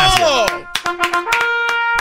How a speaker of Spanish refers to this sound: Maestro, bueno, permítame aplaudirle por hacerlo.